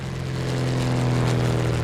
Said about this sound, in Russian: 28 мая 1987 года в московском небе появляется легкий одномоторный самолет Cessna 172.